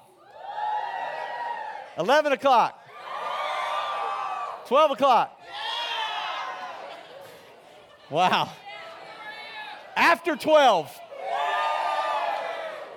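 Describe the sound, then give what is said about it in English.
A crowd of children cheers and shouts loudly in five long, high-pitched bursts, each separated by a short spoken call from an adult voice asking what time they go to bed on school nights. “So you just start cheering loud.”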